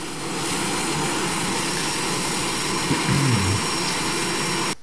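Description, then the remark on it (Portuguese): An airplane passes overhead along a flight route, a steady broad engine rumble filling the whole stretch with no pause, fairly loud, with a brief low tonal sweep near the end. “Enfim, mais um avião passando.”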